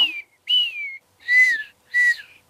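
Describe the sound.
A person whistles four short, bright notes in an even rhythm, each gliding slightly downward, imitating an animal's whistle call; clear, with brief pauses between, no talking.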